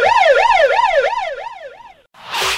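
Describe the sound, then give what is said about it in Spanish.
A loud police siren warbles quickly up and down, about three cycles a second, for two seconds, then cuts off and a brief burst of harsh noise follows. “Aguanten, tienen que cruzar la frontera, güey. Ahorita volvemos, señores. Venga, eh, de ahí. Eh, la chota.”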